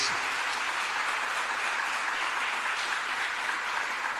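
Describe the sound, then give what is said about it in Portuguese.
An audience of believers applauds the Messiah, a dense, even wash of many hands clapping at constant loudness for several seconds with no voices rising above it. “Só os que creem aplaudam bem forte ao Messias.”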